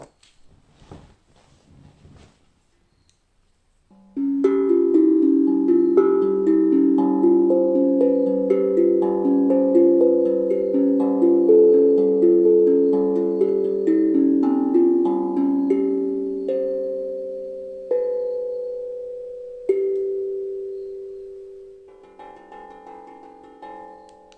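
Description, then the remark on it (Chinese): A steel tongue drum is struck in a steady stream of notes, each ringing and overlapping into a warm, mellow, bell-like wash, with a few soft clicks before it starts. “就是我觉得很很有趣，每次敲空灵鼓，要么就是蟋蟀，要么就是那个啊这个乌头。”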